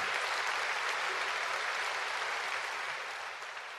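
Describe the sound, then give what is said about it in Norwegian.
Sustained applause from a large crowd in Westminster Abbey, spreading from the back rows forward, row by row, until nearly everyone in the church claps; a dense wash of clapping hands that stays steady throughout before easing slightly at the end. “Først til de bakerste radene, og så lenger og lenger fram, rad for rad, helt til nesten alle i kirken klappet.”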